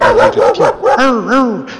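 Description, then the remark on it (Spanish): A voice imitates a dog barking, giving about six loud yelping barks in quick succession, each with a rising-then-falling whine-like pitch. “La vieja arrojó una hojuela al perro y le dijo, no ladres así.”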